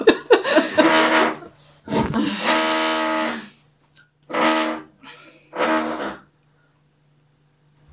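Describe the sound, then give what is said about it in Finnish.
Four loud bursts of a neighbor drilling through the wall, each a harsh whirring grind lasting one to two seconds, separated by short pauses over a faint steady hum, with no one talking. “Oikeesti ihan sitä ärsyttävää tuntuu, että se oikeasti posaa niin tuossa seinän läpi,”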